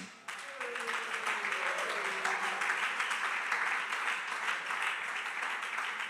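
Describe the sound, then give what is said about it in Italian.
A crowd bursts into steady, dense applause welcoming the first character, the Evangelist; it starts almost at once and holds loud and even for about six seconds, with a brief voice audible near the start. “Chiamo a voi l'Evangelista, lo accogliamo con un applauso.”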